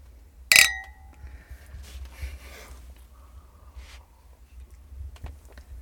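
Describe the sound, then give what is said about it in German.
A single bright clink of glasses touching in a toast, ringing briefly before fading, followed by quiet room tone with a few soft rustles and small clicks. “So, wir trinken, wir stoßen an.”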